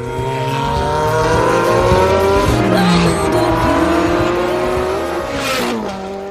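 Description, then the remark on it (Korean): A loud car engine roars as a car drives past alongside, its droning, revving tone holding steady for several seconds before easing slightly as it passes, with no voices over it. “너무 소리가 큰데 네, 엔진 소리가.”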